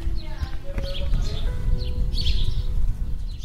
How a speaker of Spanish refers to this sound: Este es el sonido de una tarde de verano en Aras de los Olmos, a casi 40 grados. Los vecinos se refugian en sus casas o van en busca de un chapuzón en la piscina,